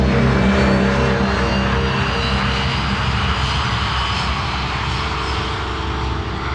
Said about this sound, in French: Nous sommes en 1953, à presque 9000 km des États-Unis. La scène se passe au-dessus des nuages, dans un avion qui relie Tokyo à Osaka pour cette tournée japonaise